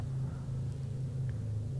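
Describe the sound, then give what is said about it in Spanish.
A car engine rumbles low and steady as the car drives away at full speed, holding the same loudness for about two seconds without clearly fading, a continuous droning hum with no voices. “Vi cómo se fue manejando a toda velocidad, y ese día no supe más de él.”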